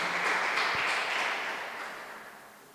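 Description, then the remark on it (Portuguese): An audience at a church service applauds the Lord together after a prayer, a dense, steady wash of many hands clapping that stays strong for a couple of seconds and then slowly tapers off. No voices are heard. “Aplauda o Senhor, pode se assentar.”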